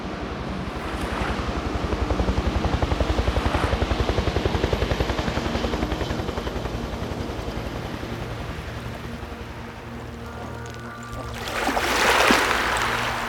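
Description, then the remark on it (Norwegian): A rescue helicopter's rotor thumps steadily and loudly overhead during a storm at sea off the Netherlands, its rapid blade chop continuous, mixed with rushing wind and surf, swelling into a louder gusty roar near the end. No one speaks. “Skipperen sender ut nødsignal, men redningshelikoptrene når ikke fram før båten går ned i stormen.”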